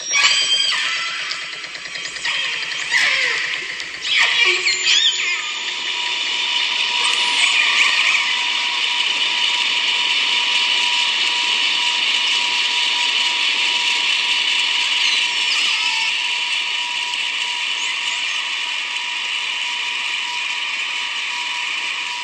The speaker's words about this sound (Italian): Quello che hai appena sentito è il rumore di un'imbarcazione motore che copre quasi completamente il suono emesso da alcune orche.